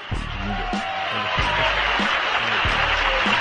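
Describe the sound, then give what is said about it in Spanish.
Thin, scattered applause from a small number of hands, a steady patter of claps lasting the whole stretch, with a few low murmuring voices underneath. “Agradezco estos aplausos tan desnutridos, a la par que merecidos, que me incitan a seguir discursiando.”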